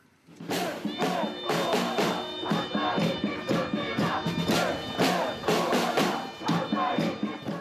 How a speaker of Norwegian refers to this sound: Vekk med hele regjeringen, roper demonstrantene i Reykjavik taktfast.